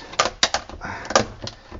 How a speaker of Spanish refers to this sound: Aquí está. Pongo el detergente, una, de estas bolsitas de detergente dentro.